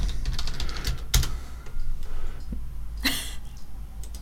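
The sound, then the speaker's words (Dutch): Keyboard typing a search, a quick irregular patter of clicks with a couple of sharper, louder bursts, over a low steady background hum and no talking. “Moet ik het in het Engels schrijven dan?”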